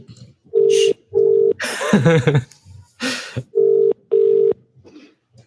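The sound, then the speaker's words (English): An outgoing phone call rings on the line: two pairs of steady electronic ring tones, a short noisy burst and a crackle of line noise between them, with no one answering. “It's no good if he doesn't pick the phone.”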